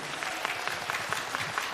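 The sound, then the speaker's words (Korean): An audience applauds a band once more after its performance, steadily, a dense wash of many hands clapping with faint rhythmic peaks recurring through the burst. No one speaks over it. “다시 한번 박수.”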